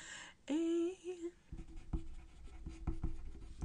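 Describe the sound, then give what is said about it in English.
A brief hummed tone gives way to a pen scribbling on paper, with quick, scratchy strokes in an irregular rhythm, fairly faint and continuing to the end. Someone is writing down an idea so as not to forget it. “So if you hear me scribbling, it's because I just got an idea. Yep, I'm scribbling”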